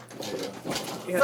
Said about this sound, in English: listen to listen to the chair. Listen to the chair.